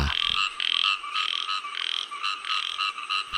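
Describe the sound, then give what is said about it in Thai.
A small, slender, long-legged frog croaks in rapid, buzzy pulses, repeating in steady bursts, loud and continuous with no voices. “เขียดเรามักจะใช้กับกบที่ตัวผอมๆพวกตัวผอมๆขายาวๆอะครับ พบอยู่ตามหนองน้ำบางทีก็พบอยู่ในป่า”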